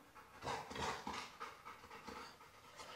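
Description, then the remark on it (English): A dog pants rapidly and steadily, a series of breathy huffs with no voices present. “У меня тут собака.”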